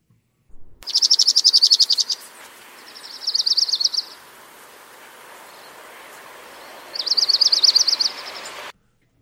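A dark-eyed junco sings three even, rapid trills of steady high pitch, each lasting about a second, with pauses between; no voices are present, just faint background hiss.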